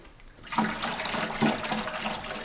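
Carpet cleaner liquid pours steadily into a carpet cleaning machine, a continuous splashing gurgle that starts after a brief quiet moment and carries on fairly loud to the end, with no one speaking.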